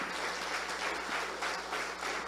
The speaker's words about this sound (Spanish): Dale un aplauso fuerte al Señor Jesucristo. Amén.